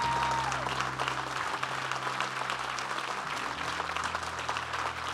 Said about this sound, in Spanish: ¿Qué tal si damos un aplauso al Hijo de Dios? How about we give an applause to the Son of God?